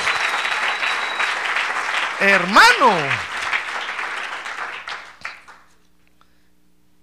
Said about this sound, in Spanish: Démosle un aplauso ahora al Señor. Gloria a Dios.